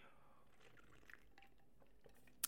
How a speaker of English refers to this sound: Sorry, I take a sip my vitamin water.